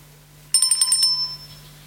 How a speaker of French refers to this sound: À chaque fois que tu entendras la cloche, tu devras tourner la page.